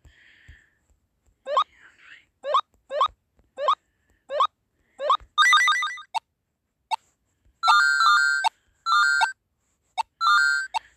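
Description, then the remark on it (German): A phone ringtone plays clearly on its own: a quick run of evenly spaced electronic chirps, followed by longer, bright chiming notes in a repeating melodic pattern. “Ja, mein Klingelton, Leute. Ich habe ihn gerade gehört.”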